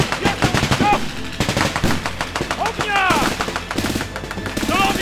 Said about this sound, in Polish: Biegli po schodach na pierwsze piętro na górę i doszło do wymiany ognia. za mną! Ognia! Amunicja do RKM-u!